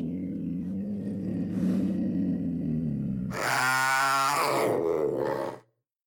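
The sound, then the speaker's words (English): A panther gives a low, rumbling growl for a few seconds, then breaks into a loud, harsh roar with a grinding, pulsing texture before cutting off abruptly. No one speaks. “AT hikers often find themselves face to face with wildlife, but when the trail ran through the Dan River Gorge, they also had to contend with panthers.”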